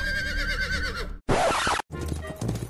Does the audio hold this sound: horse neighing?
yes